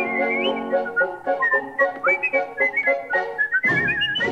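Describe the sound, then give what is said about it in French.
A bright, high whistled melody of a song tune, whistled by a bird while it builds its nest, moving in short rising and falling notes, with steady musical accompaniment underneath and no talking. “Bien que pris par ses occupations, il siffle l'air d'une chanson, ce qui rend surtout travail beaucoup moins long.”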